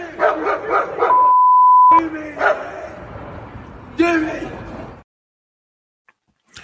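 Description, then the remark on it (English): Two dogs in a video bark aggressively in loud, rapid, agitated bursts, interrupted briefly by a steady electronic beep tone, then more growling barks before everything cuts to near silence. “Police released a statement after that incident saying that the aggressive behavior of the dogs were found to be of considerable concern”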